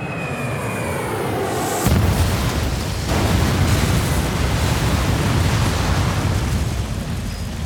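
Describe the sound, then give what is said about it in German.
A whining aircraft engine drones briefly, then a plane crashes with a sudden loud burst, followed by a heavy, sustained rumbling roar of explosion and debris that continues to the end. “Ja, und über den Dschungel ähm, von Südamerika, im tiefsten Dschungel, da sind sie leider Gottes dann auch abgestürzt.”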